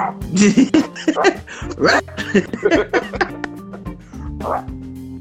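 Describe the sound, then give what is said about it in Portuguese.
A dog barks in a series of short, sharp bursts with a few higher yips mixed in, while people talk underneath. “Teve um dia que eu fiquei falando ali, o cachorro até latir.”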